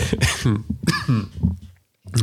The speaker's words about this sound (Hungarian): Köhögsz?